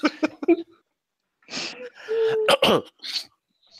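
A quick series of short, harsh coughs, followed after a pause by longer raspy, strained vocal bursts like a throat being forced clear, with no talking.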